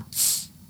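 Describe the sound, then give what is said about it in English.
A short, bright hiss of gas escaping as a bottle is opened, rising quickly and fading within about half a second, with no talking. “Let's pop a bottle.”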